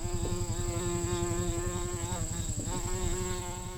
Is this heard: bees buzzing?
yes